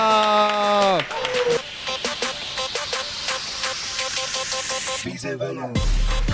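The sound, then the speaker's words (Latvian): A crowd applauds loudly and steadily for several seconds to welcome the first comedian at a stand-up comedy event, with a short musical sting at the start and more music cutting in near the end. “Nu, tad ar skaļiem aplausiem sagaidām mūsu pirmo komiķi,”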